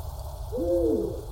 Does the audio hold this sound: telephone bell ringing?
no